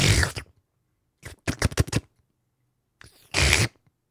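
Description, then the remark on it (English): A person vocally imitates a slurping, gulping potion-drinking sound effect: a wet noisy burst, a quick run of rapid gurgling pulses, then another longer slurp, fairly loud. “The sound effect of that sort of slurping noise when you.”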